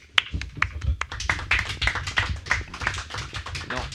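An audience applauds to thank a man for his talk, a dense, steady stream of sharp overlapping claps that keeps an even loudness for the whole stretch, with no talk over it.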